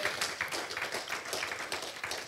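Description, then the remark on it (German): A crowd claps steadily for a couple of seconds, a dense, even wash of many hands with no voices breaking through, moderately loud. “Gott verdient einen Applaus.”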